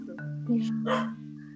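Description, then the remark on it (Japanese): A dog lets out a single drawn-out bark at night, moderately loud, over a steady low hum, with no one talking. “お散歩の時間ですか夜はね夜は 寂しんぼですねあ寂しんぼなんですね”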